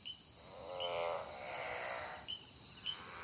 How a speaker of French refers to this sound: L'ambiance semble paisible dans le jour naissant, rythmée par le seul son des insectes et des crapauds chanteurs.